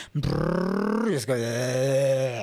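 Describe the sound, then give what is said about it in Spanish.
A voice imitates a loud motorcycle going down the street at 3 in the morning, a buzzing, harmonic-rich vocal drone that rises in pitch over a second, dips briefly, then revs again and holds steady. “Yo sé que a todos ustedes les molesta cuando alguien va con su moto todo ruidosa ahí por la calle a las 3 de la mañana y ustedes están despiertos o están intentando dormir y de repente una moto adicional”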